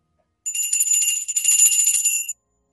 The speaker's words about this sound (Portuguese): é uma tigelinha assim de metal e você utiliza em cerimônias de budismo tibetano como um sino